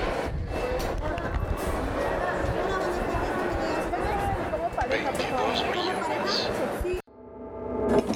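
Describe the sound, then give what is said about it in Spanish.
Dense street crowd ambience in Mexico City, a city of 22 million inhabitants, with many overlapping voices chattering, loud and continuous, then cut off abruptly near the end by a quieter, swelling sound. “¿Te has preguntado alguna vez cómo suena una ciudad con 22 millones de habitantes?”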